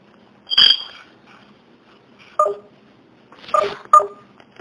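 Four short electronic keypad tones, like a phone being dialed, sound at uneven intervals: one early, then a pause, then three more close together near the end, clear against a quiet background.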